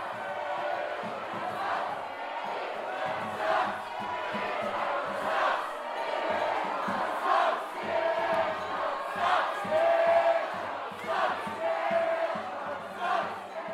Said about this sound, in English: If you hear people chanting sucks after Snitchcock, don't worry. There was no bad sportsmanship going on. It was Snitchcock team members who were chanting sucks after their name, as a joke. In fact, they chanted sucks after any chant, really.